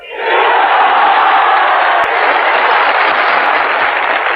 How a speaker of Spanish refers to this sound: Bueno, pues ha tenido un, buen estreno como orador Santiago Carrillo a juzgar por la efusividad, por los aplausos de, de los aquí congregados. Es cierto que jugaba en casa, ¿eh?